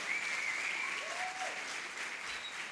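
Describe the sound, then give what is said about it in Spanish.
A crowd applauds steadily for about three seconds to encourage the young people running the sound and presentation, a dense even patter of many hands clapping, with a thin high whistle and a brief gliding cheer rising over the clapping. “nos le damos un aplauso para animar a estos jóvenes acá, sí señor.”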